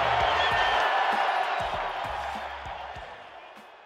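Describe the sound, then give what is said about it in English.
A large crowd at Dodger Stadium roars and cheers in a dense, continuous wash of noise, loud at first and slowly fading over a few seconds, with faint thumps beneath. “They are roaring here at Dodger Stadium.”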